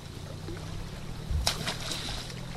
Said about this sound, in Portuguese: É uma fataça que saltou. A sentir o barco e assim salta.